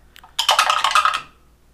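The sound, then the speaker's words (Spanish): A quick clatter of dice tumbling across a hard tabletop as they are rolled for a dexterity check in a game, a burst of small rattling clicks lasting under a second before settling into quiet. “De acuerdo, vamos entonces a tirar destreza.”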